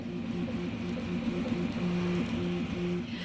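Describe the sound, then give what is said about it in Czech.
Steady mechanical whirring with shifting tonal stepper-motor whines from a 3D printer running at a leisure-time centre, continuous and moderately loud with no voices. “Tak to jste právě slyšeli 3D tiskárnu”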